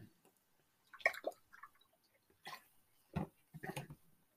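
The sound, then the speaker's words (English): Someone takes a swig of water: a few short wet slurps and gulps with brief pauses between, quiet and with no talking. “So, excuse me, I gotta take a swig of water here.”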